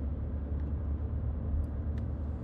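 A car driven by Brother Crispin speeds up to overtake a slow-moving car on the Brooklyn-Queens Expressway. Its engine and road noise form a steady, fairly loud low rumble that continues without pause and without any voices.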